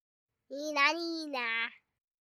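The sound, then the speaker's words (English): A two-year-old boy's voice imitates a fire truck siren, a high sustained tone that wavers and rises then dips across about a second and a half, clear with silence around it. “Here's his version of the sound a fire truck makes.”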